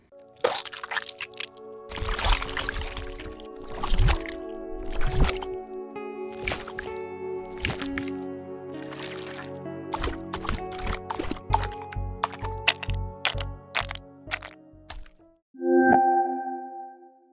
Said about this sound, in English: Squish Splat Ooze by Boombox Library features recordings of various thick, viscous liquids.